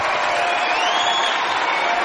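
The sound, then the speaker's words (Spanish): A large audience in a school auditorium, including the councillor, applauds steadily the decision to revive the school's old festival tradition, a dense, continuous wash of clapping with a few faint whoops or cheers mixed in, holding at an even level throughout. “Todo el auditorio, incluida la consejera, aplaude la decisión.”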